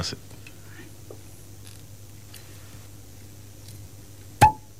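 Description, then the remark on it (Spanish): A cork is pulled from a wine bottle close to the microphone, ending in one sharp, hollow pop after several seconds of quiet background hum and faint rustling. “El señor sabe porque fíjate que lo acomodó todo y fue ya para sacarlo normalmente bien cerca del micrófono para que haga bien el ruido.”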